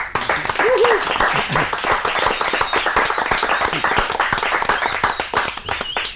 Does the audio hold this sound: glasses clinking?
no